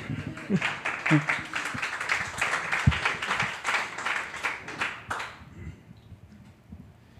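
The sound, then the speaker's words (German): A burst of audience applause, many hands clapping in a dense, steady patter for about five seconds before cutting off, with faint voices murmuring underneath. “Applaus, Applaus.”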